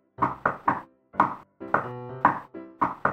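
At a fire station, a coin held in the hand taps sharply on a tabletop about nine times in uneven clusters, each hit bright with a short metallic ring. There is no talking.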